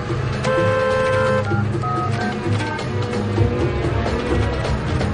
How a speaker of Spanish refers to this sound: Poco después conduce su coche con precipitación mientras marca un teléfono en su móvil.